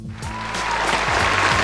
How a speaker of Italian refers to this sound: Vabbè, sono già partiti gli applausi, ok, cioè proprio eh, sulla fiducia, sulla fiducia,